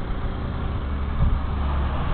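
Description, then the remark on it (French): An old blue car rumbles past, its low, rough engine steady and loud, swelling briefly midway as it goes by, with no voices heard. “Là, c'est excellent le sicard. C'est ça qu'on doit entendre là.”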